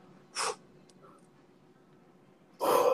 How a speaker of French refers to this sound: On souffle.